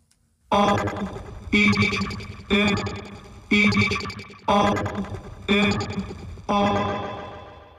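A hip-hop track opens with loud, distorted musical stabs hitting about once a second, seven heavy chords with a rough, effected tone and no vocals yet.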